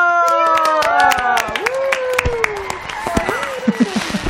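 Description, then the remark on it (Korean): Firecrackers set off on a show as a talent stage is cleared crackle in a rapid, irregular burst of sharp, loud pops, with high whooping and cheering voices rising and falling over them before the popping thins out. “야, 폭죽 소리 들리죠?”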